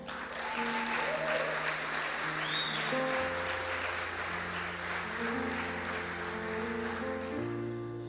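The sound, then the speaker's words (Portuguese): An audience applauds Jesus steadily for several seconds, a dense wash of clapping over sustained organ or keyboard chords that shift in pitch partway through, with no talking. “Dê um forte aplauso a Jesus nesse lugar.”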